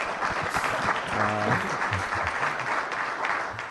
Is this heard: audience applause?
yes